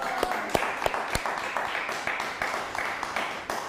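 A group at a Shabbat gathering gives a loud round of applause on a count of three to greet viewers watching on YouTube and Facebook, with dense, overlapping claps and a few sharp, louder individual claps standing out at the start, continuing steadily throughout.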